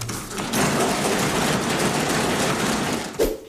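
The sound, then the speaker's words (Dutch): Dense, rapid drumming of many hands on wooden desks by members of the Dutch Tweede Kamer (House of Representatives) in The Hague, a loud continuous rattle lasting about three seconds before breaking off, with a final knock at the end. “waarom roffelen Kamerleden op hun bankje”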